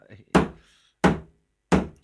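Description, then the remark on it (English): A hammer strikes three times at an even, unhurried pace, each blow a loud, dull thunk that dies away quickly. A faint murmur comes just before the first hit. “He's, no, he's I've got a hammer.”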